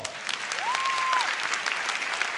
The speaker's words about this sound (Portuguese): Aleluia, aplauda o Senhor.